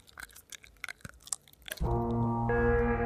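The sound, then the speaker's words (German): Gum being chewed into someone's ear: a rapid string of wet, smacking mouth clicks for a couple of seconds, then cut off by a loud, sustained droning horn-like tone that steps up in pitch. “Kannst du mir gleich noch ein bisschen mehr in mein Ohr kauen?”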